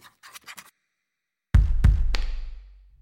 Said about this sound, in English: I inch over to my dad's fax machine, grab a pen and a piece of paper from the printer bed, and start scribbling down my message.